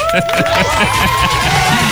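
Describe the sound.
A crowd claps and cheers in a dense, steady roar that stays loud throughout, with voices mixed in and a couple of high, sustained whistle-like tones riding over the noise.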